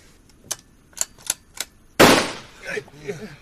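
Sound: gunshot fired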